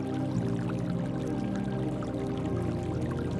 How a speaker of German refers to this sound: Das Unterholz knackt, der Bach plätschert und doch sind wir allein.